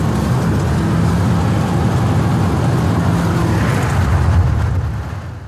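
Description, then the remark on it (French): A car drives fast on a road, fleeing mortar explosions behind it, with a loud, steady roar of engine and road noise holding constant before easing off in the final half second. “Faut aller plus vite, ils vont péter sur la route là derrière.”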